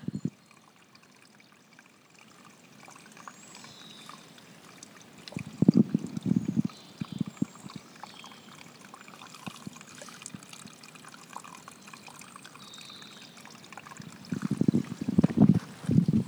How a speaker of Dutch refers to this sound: Oh, hier hebben we een beetje stroming. Dat ga ik een keer laten horen. Hier, ja. Ben er, hè. Dus lieve luisteraars, het bronnetje in Boelaarbos.